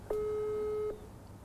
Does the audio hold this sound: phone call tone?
yes